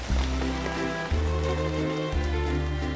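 Steady rain patters and drips in a continuous hiss, falling on a cold, grey day in London, layered over a low, sustained musical drone whose chords shift twice. No one speaks.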